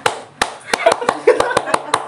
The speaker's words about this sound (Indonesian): sudah saya balas dengan tepukan mengagetkan.